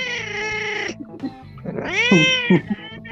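A cat meows loudly, two drawn-out calls, the first steady and the second rising and bending into a wailing tone, with a brief pause between them and no talking.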